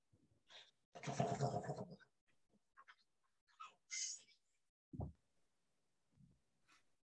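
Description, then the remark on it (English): A voice mimics a deep underwater dive: a long breathy rushing whoosh, followed by scattered short puffs, a low gulping thud and faint bubbly sputters, fairly quiet. “Which deep dive sounded the most realistic?”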